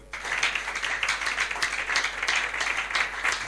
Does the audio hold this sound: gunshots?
no